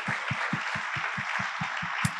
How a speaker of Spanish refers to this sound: Gloria a Dios. Ya le dieron un aplauso, ¿por qué no le damos otro?